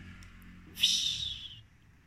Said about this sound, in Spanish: al abrir la lata.